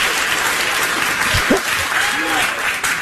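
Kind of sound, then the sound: crowd, studio audience applause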